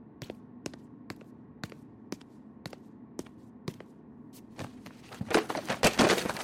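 Books are tossed onto the floor: a steady run of sharp thuds about every half second, then a louder, denser flurry of overlapping impacts near the end, with no talking.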